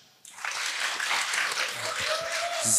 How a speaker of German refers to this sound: und äh, damit ihr mir das auch glaubt, kann das Publikum hier im Saal gerne einmal ganz kurz klatschen.